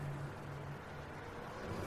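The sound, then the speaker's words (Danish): A white Renault Scenic's engine rumbles steadily, a low continuous drone with a faint hum at the start, as the car turns into a parking lot. “Bag rattet på den hvide Renault, der lige er svinget ind på parkeringspladsen, sidder en mand”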